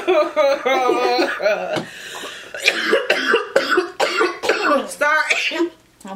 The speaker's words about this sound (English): Okay, cough level.